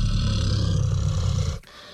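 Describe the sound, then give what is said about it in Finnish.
A deep, rumbling bear growl, loud, holds steady for about a second and a half before cutting off abruptly. No one speaks. “jos siinä on karhu selän takana, niin ei tarvi pelästyä. Ja toisaalta äh, esimerkiksi tämä ääni.”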